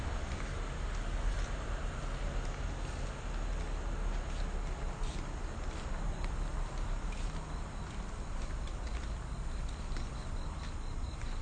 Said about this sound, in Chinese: 有听到那个脚步声吗？他的鞋底跟柏油路摩擦的声音。那是一个爷爷。